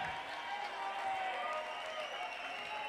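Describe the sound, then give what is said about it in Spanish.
Steady, dense applause from an audience at a sixth-anniversary event in Barcelona, for a man who travelled from Granada, a continuous wash of many hands clapping at even loudness throughout, with a faint murmur of voices mixed into the crowd noise. “Pero me gustaría, por favor, que un señor que se pega 1400, 1300, 1400 kilómetros para venir desde una tierra maravillosa como es Granada hasta Barcelona yo creo que lo que necesita es un fuerte aplauso traducido en calor para todo el mundo.”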